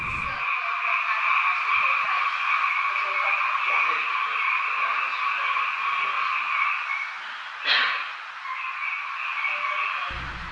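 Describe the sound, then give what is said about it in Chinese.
Cicadas buzz in a steady, high-pitched drone on a summer night, with frogs calling through it and a brief louder rustle near the end; the chorus continues without a break. “您现在听到了这一段蝉鸣蛙叫的声音呢，证明我们在录音的时候真的是夏夜哦，是夏天的夜晚。”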